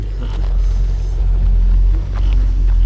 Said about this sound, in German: Ah, ein Auto kommt.